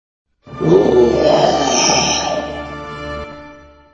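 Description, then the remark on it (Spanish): A lion's deep, rumbling roar starts abruptly and holds for about three seconds, loud, then slowly fades away. No one speaks over it. “¿Pero qué fue ese rugido?”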